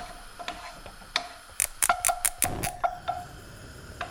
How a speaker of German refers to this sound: Ich zünde schon mal den Gasherd an.